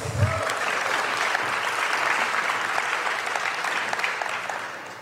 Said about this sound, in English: Let's give them all another round of applause.